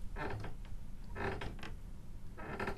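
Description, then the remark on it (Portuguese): A chair creaks in three drawn-out bursts as someone shifts their weight in a studio, each creak moderately loud against the quiet with no one talking. “Basta algum de nós ranger, não é? Eh, mexer-se na algum cadeira.”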